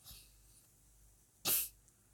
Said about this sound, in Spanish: Mi nariz, tengo un problema con la nariz un poquillo, que desde niño lo he tenido, se me tapa y tengo que hacer eso.